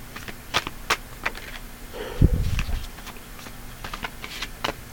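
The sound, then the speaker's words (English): A deck of cards being shuffled: soft papery slaps and crisp clicks repeat in uneven bursts, with a denser rustling flurry midway, and no voices. “Do a little bit of shuffling.”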